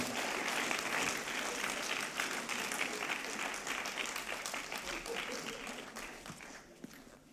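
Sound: audience applause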